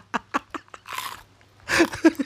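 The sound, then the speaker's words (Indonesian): Crunchy chewing of fried tofu, with several sharp crisp bites in quick succession followed by a louder burst of crunching, with no talking. “gua makan tahu juga enak kraus kraus”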